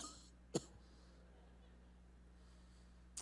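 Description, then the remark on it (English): A person fakes a cough, imitating a woman's little coughing fit: two short, sharp bursts about two and a half seconds apart, with near silence between them. “She probably had a little coughing fit.”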